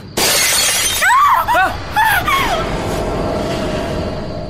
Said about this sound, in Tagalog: Biglang sumabog ang malaking salamin ng tukador. Nabasag ito at nagkapira-piraso.